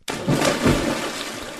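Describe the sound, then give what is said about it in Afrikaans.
A heavy splash as a lion leaps into a water well, followed by a sustained rush and churn of water that fills the short moment, loud, with no voices. “En hy word so kwaad dat hy in die put inspring om hulle te vang”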